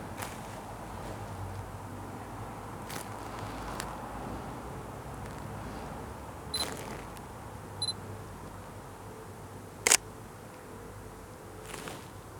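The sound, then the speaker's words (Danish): A handful of sharp shutter clicks from a handheld camera, about five, fire at irregular intervals over a low, steady ambient hum, with a brief faint electronic beep between them. No one speaks. “Der er også grænser for mig hvor meget lys vi kan hive ind igennem kamera lens.”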